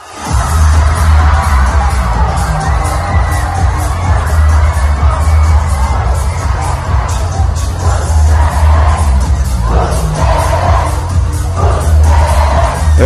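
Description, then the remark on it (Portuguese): A large crowd at a DJ event, recorded before the pandemic, cheers and shouts continuously over a loud, thumping bass beat, with whoops and bursts of yelling rising above the steady music throughout. “Atenção que este é um som de um vídeo gravado antes da pandemia, como quer dizer, o futuro está aí à porta e que em breve vamos estar todos juntos outra vez.”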